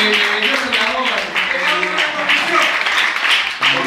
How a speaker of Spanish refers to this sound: ¿Sigue siendo tu novio en el saca o no? ¡Ay, no! Un aplauso para él.